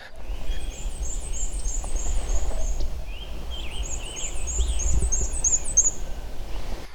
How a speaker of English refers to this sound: You've got the black and white warbler, Another really neat one. It's very common.